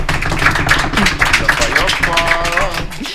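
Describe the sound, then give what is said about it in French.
An audience bursts into steady applause to welcome a guest on a show, a dense, loud patter of many hands clapping for the full three seconds, with a brief high cheer or whoop rising over it near the end. “Merci d'applaudir”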